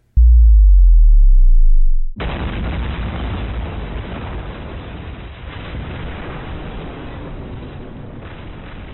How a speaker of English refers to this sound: All right, I reckon we put a, a some some sort of bomb sound effect here.